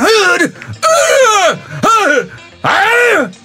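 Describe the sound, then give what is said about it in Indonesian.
A voice lets out four loud, drawn-out yells in quick succession, each one swelling up in pitch and dropping away, strained, with short pauses between, demonstrating yelling while playing ML. “kayak depan gue kayak kuli deh karena gue semakin teriak-teriak gitu semakin energi gue”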